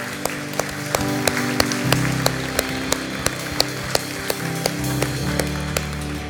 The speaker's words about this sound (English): Come on, can we put our hands together?